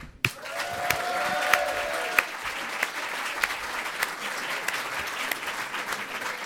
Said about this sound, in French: Ouais, euh, un peu d'applaudissements pour JFrog quand même.